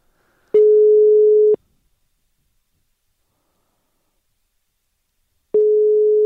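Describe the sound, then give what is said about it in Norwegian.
A telephone ringback tone heard while calling: a steady, single-pitched electronic tone lasting about a second, then four seconds of silence before the tone starts again. Clear and alone, with no talking. “Det er i hvert fall ringelyd. Det er summetone, summetone, i hvert fall.”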